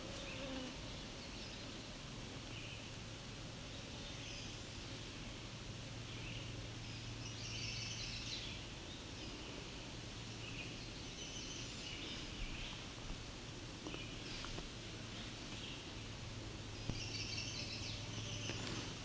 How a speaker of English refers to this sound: That sounds like potential chestnut-sided warbler. The dee dee dee dee dee dee doo. The mnemonic on that is please, please, please to meet you.